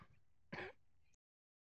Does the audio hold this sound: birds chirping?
no